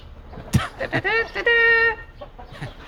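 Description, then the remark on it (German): Chickens cluck in a quick burst of short, sharp calls, followed by one longer drawn-out squawk before fading to a few soft clucks. “Du siehst, in der Welt der Hühner, da ist es sonnenklar, wenn es zu essen gibt, gibt es eine klare Hackordnung.”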